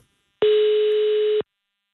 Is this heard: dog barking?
no